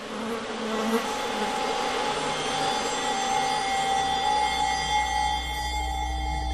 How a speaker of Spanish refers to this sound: en el siglo XVIII, atrapó la experiencia sencilla pero profunda del zumbido de una mosca en la vastedad de una noche de insomnio. Zumbidos impertinentes que le revelan la voz del silencio, la interminable noche y la callada soledad del ser humano.